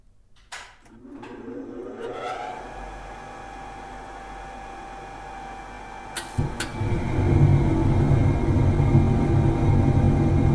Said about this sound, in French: Ce que l'on entend ici, c'est le son d'une usine de fabrication d'ammoniac, rendu possible par un procédé inventé il y a environ 115 ans.